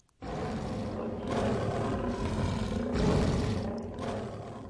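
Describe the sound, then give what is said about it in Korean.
A tiger, falling into a sorghum field after the rotten rope it climbed snaps, roars loudly and continuously for several seconds, a deep rumbling growl that swells and surges in waves, forceful with no talking over it. “그렇게 썩은 동아줄을 타고 하늘로 올라가려던 호랑이는 수수밭으로 떨어졌는데요.”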